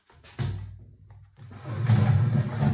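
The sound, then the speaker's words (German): A pet cat, Mieze, snoring: a low, rough, raspy rumble that starts abruptly, eases briefly, then swells into a steadier, louder grumbling drone with no talking over it. “Mieze schnarcht”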